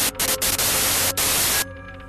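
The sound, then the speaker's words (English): A loud burst of harsh, hissing static on a cell phone call fills the full range for about a second and a half, briefly cutting out a few times, then drops abruptly to a quiet electronic hum. “A burst of loud static forced my phone reflexively away from my ear.”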